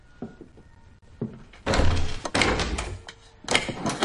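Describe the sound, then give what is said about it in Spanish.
A locked door in a bedroom is rattled and pushed against its frame in a series of loud thunks and clacks, as someone keeps trying the handle and it won't give. “Intenta abrir una puerta cerrada.”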